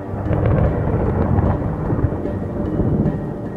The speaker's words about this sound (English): There, above the lake, streaks of lightning shock the sky. From a distance, the lightning is completely silent, but out there on the lake, in the thick of it, the atmosphere rumbles and thunder crashes.